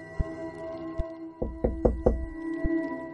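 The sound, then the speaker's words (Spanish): Knocking on a wooden bedroom door: a few single raps, then a quick cluster of four firm knocks, followed by one last tap. Fairly loud, with a steady low hum underneath and no voices. “Sabía que no había nadie en la habitación, pero quizá por educación o por temor o por cerciorarme, llamé a la puerta.”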